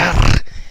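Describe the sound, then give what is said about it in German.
A dog gives a short, rough growl, a loud burst lasting under half a second before dropping away to a low, breathy rumble. No one speaks. “Und das ist der Hund.”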